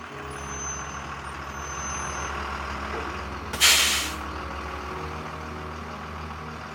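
A bus arriving at a bus stop idles with a steady low engine rumble, then a single sharp, loud hiss of air brakes bursts out briefly before the idling continues.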